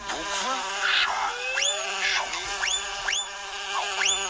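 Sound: bumblebee buzzing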